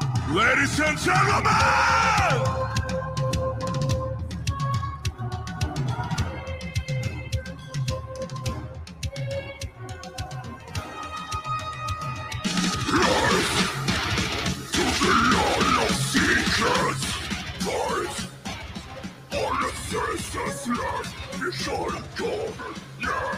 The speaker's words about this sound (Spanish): Y entonces esta fue de las primeras tocadas que ellos hicieron con orquesta en vivo, ¿no? Siempre graban con la orquesta, pero mm, primero, primero componen la orquesta y luego lo que van a escuchar ahorita.